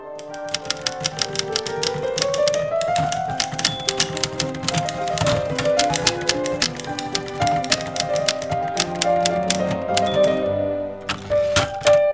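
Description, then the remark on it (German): Brisk typing on an Olympia mechanical typewriter as a writer works on a novel, sharp keystrikes clattering in quick irregular bursts, with a bell ding and carriage return near the end, fairly loud over a faint musical background. “setzt sie dann aber doch ganz sanft vor die Tür und geht zurück an ihre Olympia.”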